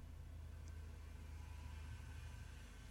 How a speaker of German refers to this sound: ich habe hier schon einen Soundeffekt, nämlich Straßen. Remote-Datenstrom, Verkehr aus Verkehr. Ja, Verkehr habe ich nämlich hier mal eben ausgewählt als Sound.